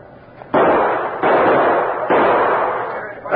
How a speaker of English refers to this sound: Shoot the lock off and let's bust in.